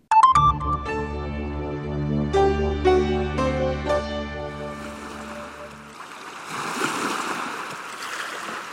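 A few seconds of ringing, bell-like musical tones give way to the steady, rushing wash of ocean waves, which fill the final stretch at moderate volume with no voices.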